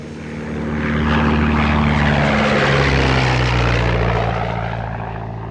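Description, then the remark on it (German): A propeller airplane's engines are started and roar up from a low drone into a loud, steady, throbbing hum as the plane starts moving, bumps along the runway and takes off, with no voices. “startete die Motoren, das Flugzeug setzte sich in Bewegung, hoppelte über die Startbahn und hob ab.”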